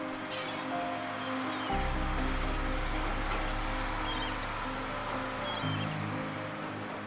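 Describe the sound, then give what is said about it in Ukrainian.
A heavy garbage truck bringing household waste rumbles up an embankment road at a landfill strewn with bottles, plastic bags and broken glass, its deep engine drone swelling in over a constant wash of rattling, gravelly noise, with no one speaking. “Як ви зрозуміли, це сміттєвоз.”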